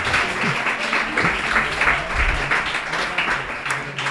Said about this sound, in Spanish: Bueno, que te están aplaudiendo. Les ha, les ha, interesado eh, lo que has contado,